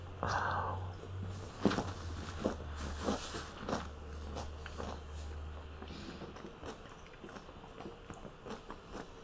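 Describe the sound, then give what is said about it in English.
Wet chewing of pickle and cheese, with irregular crunchy bites and squishy mouth sounds over a low steady hum that fades partway through; no one speaks. “it's pickle and cheese.”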